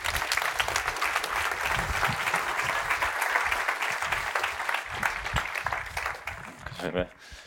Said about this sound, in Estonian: aplaus